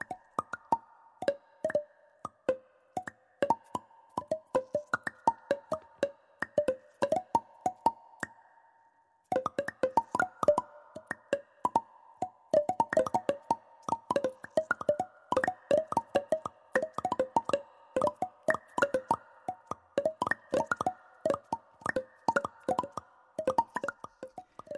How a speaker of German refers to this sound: Jetzt hören wir noch was vom …. Und ich finde, das klingt ja so, als würden sich Außerirdische unterhalten.